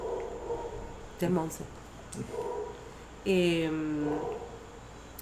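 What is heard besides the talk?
dog barking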